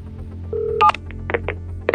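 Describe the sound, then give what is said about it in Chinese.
Electronic mobile phone dialing tones as a man dials his uncle's number: a sustained beep, then several short keypad blips at uneven intervals, bright and moderately loud over a low background hum, with no voices. “他拿出手机拨通了叔叔赵大海的电话。”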